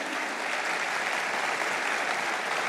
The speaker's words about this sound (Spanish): Es cuando uno de verdad aplauda al Señor por ellos.